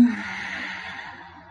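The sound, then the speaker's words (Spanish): A long, steady breath exhaled through the nose during a deep-breathing exercise, pushed out softly with a breathy, airy hiss that gradually fades over a second and a half, fairly quiet, with no talking. “Exhalan todo ese oxígeno usando siempre sus fosas nasales.”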